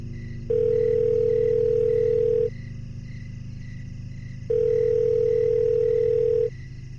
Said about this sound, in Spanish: Doy gracias a Dios que la llamada entró y tras sonar algunos segundos, él me contestó.